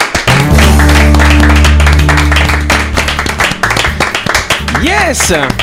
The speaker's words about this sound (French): Je pense qu'on peut applaudir notre invité. Bravo.